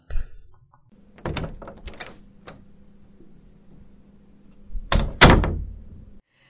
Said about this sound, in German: Das hat sehr nach einer Tür getönt, die zugemacht worden ist. Äh, das ist richtig. Also, also durch die Tür rein und raus. Und zwar ist äh, eine Tür von einer kleinen Kapelle, wo wir dann im Verlauf unserer Wanderung noch werden begegnen.